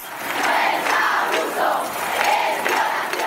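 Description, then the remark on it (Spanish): A large protest crowd in Spain shouts a chant together in unison after the first conviction of 'La Manada' on 26 April 2018, loud rhythmic bursts of many voices rising and falling in repeated phrases, with no single speaker standing out. “El 26 de abril de 2018, la primera sentencia condenatoria a la manada provocó este grito en España.”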